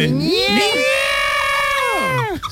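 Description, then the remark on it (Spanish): A loud, shrill, sustained scream in an old woman's voice, holding a high wavering pitch for about two seconds before breaking off abruptly, alone. “No, no, pero a mí me gusta el grito de vieja, ¿eh?”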